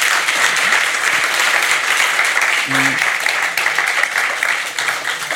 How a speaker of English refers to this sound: Um, thank you very much for, for the lecture and for your conversation. Warm applause for Tina Chanter.